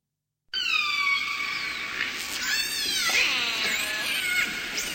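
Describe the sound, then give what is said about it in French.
Killer whale calls: a steady stream of high, squealing whistles and harmonic cries that rise and bend in pitch, overlapping one another and filling the whole stretch with no talking. “Bon, c'était effectivement l'orc”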